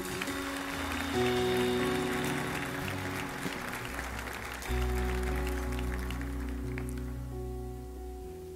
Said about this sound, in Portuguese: Será que você pode aplaudir Jesus pela leitura do texto?